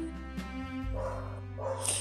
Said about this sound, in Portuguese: Por exemplo, um cachorro que começa a latir toda vez que eu começo a gravar cansa. Eu sei, cansa.